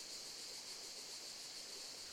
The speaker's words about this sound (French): La cascade n'a plus de cascade que le nom. Il n'y a plus qu'un tout petit filet d'eau qui coule, alors que, en temps normal, même l'été, le débit est important. À cause des sécheresses à répétition, j'ai peur que la source tarisse.